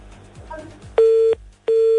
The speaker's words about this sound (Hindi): लगता है भाभी ने पकड़ के फोन काट दिया